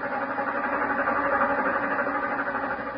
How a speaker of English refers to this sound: Jane East anxiously wondered just how she would be accepted as her train slowly churned its way across the nation from her Boston home to a newly inherited world known as the Bar J.E. Ranch near the small cattle town of Star City, Texas.